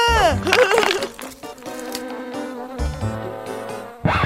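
A swarm of bees from a nest in a tamarind tree, after a thrown stick hit the nest, buzzes loudly: a dense, continuous drone whose pitch wavers and swells for about four seconds, with no one speaking.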